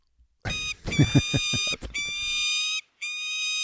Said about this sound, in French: Je trouve ça décevant quand on entend un cri d'un faucon. On s'attendrait à mieux d'un faucon.